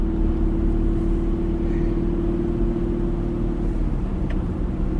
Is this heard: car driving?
yes